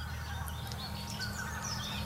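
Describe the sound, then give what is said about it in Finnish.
Distant geese waking on a field, including taiga bean geese, tundra bean geese and barnacle geese, honk in a steady, overlapping chorus, their low calls blending into a faint, continuous murmur with scattered higher bird notes and no voices. “Ja nämä matalat äänet on hanhien ääniä. Siellä on hanhia kauempana.”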